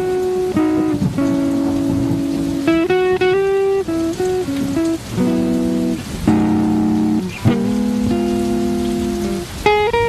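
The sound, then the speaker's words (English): A steady rainstorm hisses continuously beneath loud, sustained musical chords that shift every second or so, with faint rumbles mixed in; no one speaks. “And then it's just this long decrescendo with a rainstorm.”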